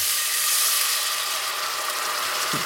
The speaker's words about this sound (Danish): Nu er det lysebrunt. Så, så, kommer jeg, så kommer jeg lidt vand ved, for derved så stopper jeg stegningen og går over i en kogning.